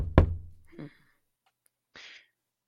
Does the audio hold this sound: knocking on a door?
yes